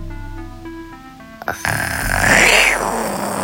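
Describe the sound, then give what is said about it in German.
A person imitates a tiger with a long, raspy, growling roar that swells and then eases off over about two seconds, as a sound for someone to guess in a sound-guessing game. A quieter steady humming tone comes first. “Ähm, eine Katze, ein Löwe, ein Tiger? Ja, Was denn? Ein Tiger? ja.”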